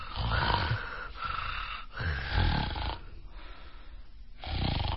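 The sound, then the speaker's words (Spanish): Loud snoring repeats with every breath, rough rattling inhales alternating with softer exhales in a steady rhythm, about three cycles over a few seconds with no talking. “Entonces, ese ronquido es continuo con cada respiración.”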